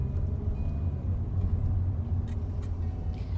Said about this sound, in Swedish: Men här är bilen på väg till vapenfabriken